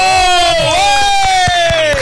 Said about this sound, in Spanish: ¿Qué es lo que está pasando con el aplauso?